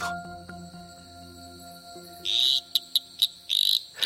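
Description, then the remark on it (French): A male Litoria phalax tree frog gives a loud, rattling mating call: a long buzzing burst, several short clicks, then another extended rattle, over a faint background of steady insect-like hum. “Les appels de séduction des messieurs ont un son de crécelle.”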